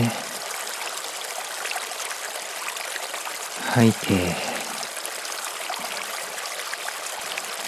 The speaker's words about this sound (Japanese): リラックスできたら流れる川の音に耳を傾けましょう軽く目を閉じて気持ちよく晴れた空流れる川心地よい風をイメージしてみてください静かに川が流れ音を立てているのが聞こえてきます流れる川の音